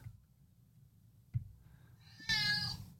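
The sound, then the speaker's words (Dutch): A single clear meow rises near the end after quiet low rumbling and a soft knock, loud with rich harmonics, lasting under a second and sounding alone. “Ik wil weten waarom er een kat op Turkije staat.”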